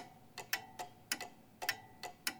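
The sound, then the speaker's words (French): A clock ticks steadily, its sharp, crisp ticks arriving in pairs at an even pace, clear with no voices. “Tenez les yeux fixés sur l'horloge, et au moment même où elle sera à l'heure, c'est qu'il sera 8 heures.”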